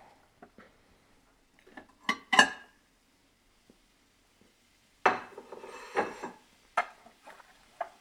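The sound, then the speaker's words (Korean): Wide ceramic plates clatter and clink as they are set down on a counter for a meal of warmed bread and fried eggs, several sharp knocks with brief scraping, fairly loud amid quiet pauses. “그리고 빵도 어, 상온이니까 빵도 데펴주고 계란 후라이도 준비해주고 접시도 준비해 줍니다. 접시는 넓은 걸로”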